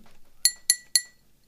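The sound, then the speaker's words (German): The pop-up chime of Karl Klammer, the Microsoft Office paperclip assistant: three quick, bright, glassy pings in an even rhythm, each ringing briefly before fading, with no voices. “Von Gar nicht schlecht, das Geräusch.”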